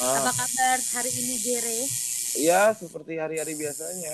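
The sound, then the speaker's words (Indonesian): A tattoo machine buzzes steadily with a thin, hissy whine as one of two chatting people is being tattooed, briefly cutting out for a moment before starting up again. “Gue lagi sambil nato nih.”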